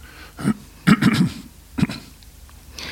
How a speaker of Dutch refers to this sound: als u eh, … hoort hoesten, geen zorgen, het zijn kikkertjes